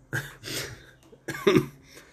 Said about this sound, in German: Ey, dieser Husten ist scheiße.